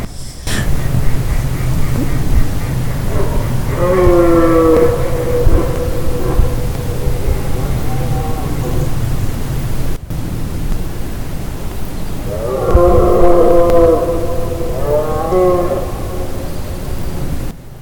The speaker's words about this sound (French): on va entendre les cerfs braver